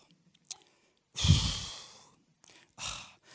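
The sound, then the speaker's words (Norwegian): A voice imitates the groan of someone in pain or discomfort: a long, breathy, sighing moan followed by a shorter exhaled groan, fairly soft, with no speech. “Har du hørt liksom, hvis noen har det vondt, har det vanskelig, liksom, ikke er helt komfortable, så sitter de sånn og stønner litt sånn åh.”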